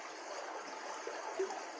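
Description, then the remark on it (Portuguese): Water in a flowing stream rushes and babbles steadily, an even, continuous wash of sound at moderate volume with no voices or other noises. “Vamos, vamos caminhar em um córrego. Estamos agora a caminho desse córrego”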